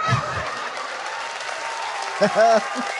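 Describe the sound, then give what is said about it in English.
A canned applause sound effect: steady, dense clapping and crowd noise across the whole stretch, with a short honking, squawk-like burst rising over it near the end. “I don't hear my applause.”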